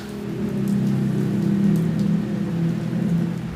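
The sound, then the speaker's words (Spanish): Large, scattered raindrops falling steadily, with a few heavier drops splashing distinctly over a constant low rumble of water. No one speaks. “Eran la una once horas y, extraño suceso, llovía. Así es. Grandes gotas se precipitaban, dispersas y perezosas, escandalosas.”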